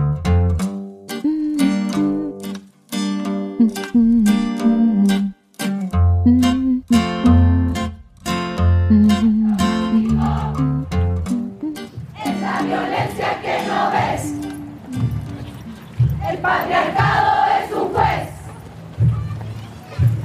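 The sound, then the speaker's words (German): A large crowd of women performs Las Tesis' protest piece "Un violador en tu camino", chanting in unison with strong rhythmic, shouted phrases and sharp percussive beats, shifting later into a dense, roaring wall of massed voices and cheering. “Im Hintergrund ist jetzt wieder die Performance von Las Teses zu hören.”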